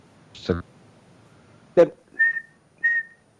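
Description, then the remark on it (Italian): A person whistles two short, steady, high-pitched tones imitating the whine of an aircraft's four turbofan jet engines running at full power. Brief bursts of speech come just before them. “no, no, perché con quattro turboreattori, con quattro turbofan che vanno a tutta Gallara, il fischietto del bianco ci vuole un cicalino abbastanza potente.”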